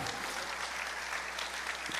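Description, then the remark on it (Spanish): A church audience claps for the Lord in a dense, continuous wash of applause filling the room, moderately loud and sustained for the whole moment, with no one speaking over it. “Dale un aplauso al Señor por eso.”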